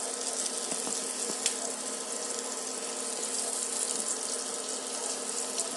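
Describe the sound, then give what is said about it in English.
A steady, dense sizzle with bright hissing throughout and scattered small pops and crackles, holding an even loudness for the whole stretch with no voices. “And this sizzle is reminiscent of that lightning or thunder rather. Mini thunders.”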